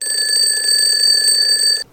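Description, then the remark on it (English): A loud, steady electronic alarm clock rings continuously with a shrill, high-pitched tone, then cuts off abruptly near the end. “We ring the doorbell when we go to someone's house, or the ringing of the telephone, or the ringing of the alarm clock in the morning wakes you up.”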